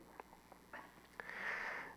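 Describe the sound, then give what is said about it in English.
A series of short nasal sniffs in an irregular rhythm, ending in a longer, breathy inhale through the nose, with no talking. “excuse my sniffling”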